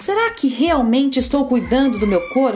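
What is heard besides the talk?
rooster crowing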